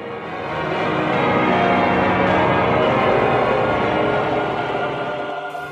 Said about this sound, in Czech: V kostelech se ozývá zvuk varhan a znovu se také rozeznívají kostelní zvony.